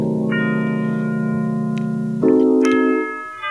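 Dark, brooding synthetic music generated with the AI tool Strofe, with sustained layered drones and a shift in chord partway through, sounding compressed and slightly lo-fi with a thin, low-bitrate quality.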